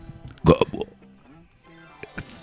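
A single loud, throaty burp bursts out near the start and trails off into quieter rumbling, followed later by a couple of brief, faint sounds.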